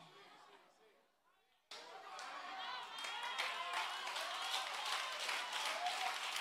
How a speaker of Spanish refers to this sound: Si le va a dar el aplauso al Señor, dáselo bien.